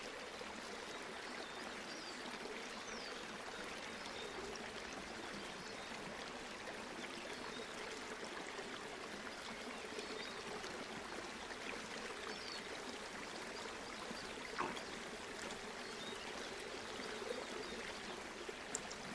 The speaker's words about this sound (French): Et alors que vous descendez le long de la rivière, à chaque pas plus profondément dans la vallée.